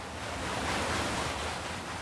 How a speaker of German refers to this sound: Und einen Mühlbach, den hat es natürlich auch, den Bischbach, der das übermannshohe Mühlrad antreibt. Ja, unser Mühlrad, unser Wasserrad ist quasi Energiequelle früher gewesen für die Papierproduktion und heute macht es Strom.